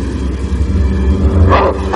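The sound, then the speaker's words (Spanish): A large black dog coming out through the hedges on the opposite sidewalk gives two deep, loud barks near the end, over a steady low rumble with no talking. “Un perro negro sale por los setos de la acera de enfrente.”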